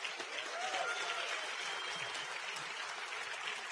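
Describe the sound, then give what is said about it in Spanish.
An audience at an Amway event bursts into steady, sustained applause for those proud to be Amway entrepreneurs, a dense wash of many hands clapping at once that holds an even loudness throughout with no voices standing out. “Es un aplauso a los que están orgullosos.”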